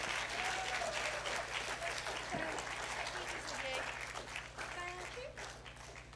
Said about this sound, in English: Can we give everyone who's helped this morning a big round of applause?